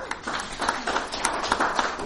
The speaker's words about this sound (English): Give God a, a hand clap right